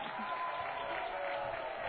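A crowd cheers and applauds as players run through a human tunnel, a steady, dense wash of noise that holds at an even level throughout, with no single voice standing out.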